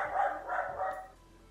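A pet dog barks three times in quick succession, fairly short, moderately quiet yips, then the sound fades into quiet background tone.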